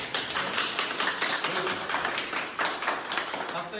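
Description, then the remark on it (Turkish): Doctors and nurses at a hospital in Bafra, Samsun, Turkey applaud as two patients aged 73 and 54 who beat coronavirus are discharged, a dense, steady patter of many hands clapping that fills the whole stretch with small swells, faint voices mingling underneath. “Doktorlar, hemşireler alkışlarla veda etti hastalarına.”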